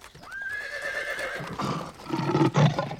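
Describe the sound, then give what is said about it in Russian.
A horse neighs loudly, a long high whinny that wavers and trails off, followed by snorting and a few heavy stamping sounds. “Я самы душы звер. зарагатаў конь.”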